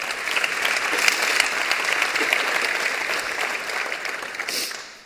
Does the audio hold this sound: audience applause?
yes